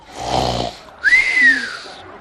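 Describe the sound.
A voice imitates snoring: one rough, rattling inhale, a brief pause, then a long whistling exhale that rises and slowly falls, like a cartoonish sleeper, mimicking people falling asleep immediately.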